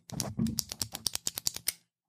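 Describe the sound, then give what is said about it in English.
A ballpoint pen clicks rapidly about ten times in a quick, fairly even rhythm, each snap sharp, with no voices. “This is um, things like people popping chewing gum, uh, clicking a pin”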